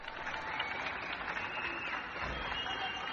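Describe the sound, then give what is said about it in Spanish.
Steady applause from many neighbours clapping together in the streets at 8 in the evening, a dense continuous patter with no pauses, fairly loud throughout. “Una mujer saca un tambor a la ventana y avisa de que es la hora comienzan los aplausos en las calles.”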